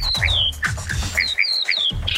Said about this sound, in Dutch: Dit is een spreeuw. Die kakt de hele boel onder in Vlissingen.